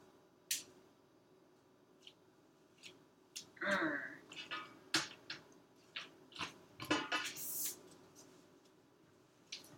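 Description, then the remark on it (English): Kale is dropped into a pan, with crisp, irregular leafy rustles and soft crunching thumps that come in scattered bursts, plus a brief hissing flare near the end. “if I was being smart about it, I probably would have melted the butter first before I started putting the kale in the pan.”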